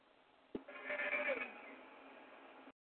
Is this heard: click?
no